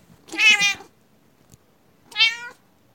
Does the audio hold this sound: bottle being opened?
no